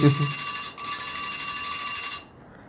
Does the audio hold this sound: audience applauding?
no